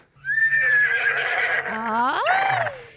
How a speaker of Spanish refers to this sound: Y le dice, doctor, doctor, vengo a visitarlo porque mi marido, mi marido se cree caballo, se cree caballo todas las mañanas, se la pasa relinchando, trota todas las mañanas